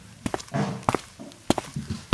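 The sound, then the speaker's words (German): Footsteps walk at an unhurried pace, about seven sharp, fairly loud thuds landing in loose pairs, with soft rustling between some of the steps and no talking. “komm mal mit, wir, wir, gehen mal langsam los.”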